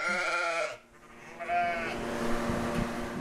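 animal, sheep bleating

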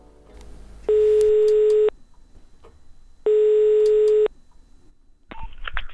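signal or alarm, telephone number being dialed

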